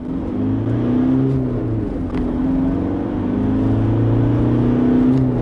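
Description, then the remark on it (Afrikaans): The 2.5 turbo diesel engine of an X-Rider pickup drones, its low, rough hum rising and dipping in pitch as it revs gently, steady and loud throughout with no voices. “Die X-Rider se 2.5 turbo diesel is grower en meer lawaaierig as sy teenstanders teen luier en laaspoed hoewel hy heel beskaafd op die ooppad loop.”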